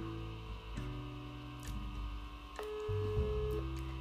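Steady electronic telephone tones step between pitches, like a call being dialed and connecting, with short clicks at a few points and no voices.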